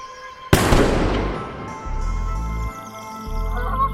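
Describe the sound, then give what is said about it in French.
A single sharp gunshot cracks out and rings off in a long, echoing decay, with a low rumbling drone underneath; no one speaks. “Après que le coup de feu avait résonné, ils avaient détalé comme des cafards dans la lumière.”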